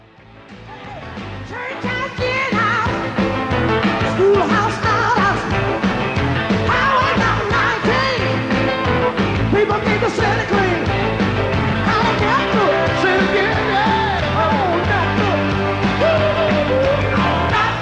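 Loud live concert music with a full band and a singing voice, performed at the River Plate stadium, dense and sustained with a crowd-filled ambience, rising in from a quiet start and staying steady throughout.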